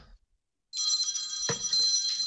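A telephone rings with a bright, continuous electronic trill that starts abruptly after a brief silence and keeps going at a steady level, with a soft thump partway through.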